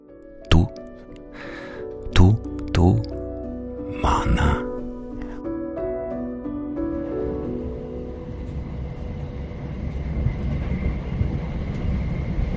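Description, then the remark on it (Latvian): A train rolls along past the suburbs of Moscow with a steady rumbling roar that builds and fills the second half, preceded by a few sharp knocks and clanks and a sustained droning tone. “Mājās braucot, Vizma cenšas neko nedomāt. Ļauj skatienam slīdēt līdzi vilciena gaitai.”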